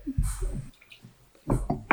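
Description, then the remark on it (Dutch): Wine, an old-vine Grenache from Roussillon, France, glugs from a bottle into a glass in two short bursts of gurgling, with a brief quiet gap between them. “En die wil ik graag schenken.”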